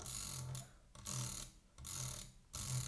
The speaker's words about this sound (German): Und ja, auf der rechten Maustaste kann ich auch, hört ihr jetzt auch,